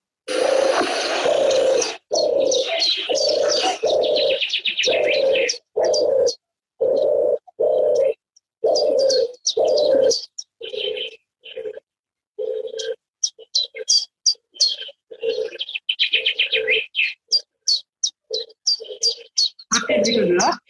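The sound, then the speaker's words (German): A European turtle dove's soft, rolling purr repeats in steady phrases, while a loud chiffchaff chirps sharp, high notes over it, with a brief burst of noise at the start and end. “Ich möchte sie jetzt einmal anspielen, ja. die Turteltaube. Hier kommt sie.”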